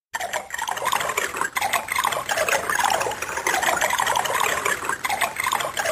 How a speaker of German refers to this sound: Gibt's auch sogar hier und da einen kleinen Soundeffekt. Wenn du zum Beispiel in die Wäscherei gehst, ne, dann gibt's so ein kleines Blubbern zu hören. Das gibt's in der PC-Version nicht.